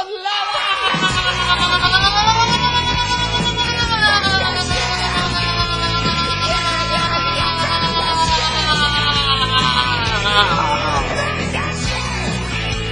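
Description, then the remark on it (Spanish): A loud, sustained roar of many voices yelling and whooping together, a dense wall of crowd noise that holds steady for several seconds without letting up. “Todos juntos conmigo gritan, contigo, contigo a todos.”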